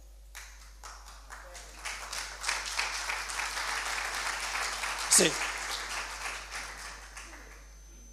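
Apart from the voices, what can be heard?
audience applause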